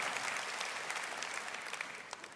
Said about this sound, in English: So thank you for what you're doing. Would you give yourselves a little applause for that? Praise God.